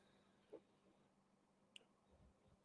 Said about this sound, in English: You dropped out.